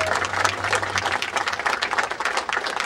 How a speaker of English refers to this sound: So for that, I thank you. Give yourselves a big round of applause for all of your hard work.